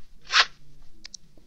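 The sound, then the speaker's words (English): A quick rip of toilet paper being torn from a roll, a short papery burst followed by a couple of faint crinkles, with no one speaking. “I have paper, toilet, you know, a roll of toilet paper.”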